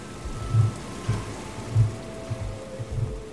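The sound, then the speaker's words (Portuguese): Grape crushing and destemming machinery rumbles steadily, with irregular low thuds and a faint mechanical whine over a constant wash of noise, in a highly mechanized process turning grapes into must and separating skins and seeds for making vinho verde. There is no talking. “E imediatamente começa todo o processo que transforma a uva em mosto e do mosto separa a casca e as grainhas.”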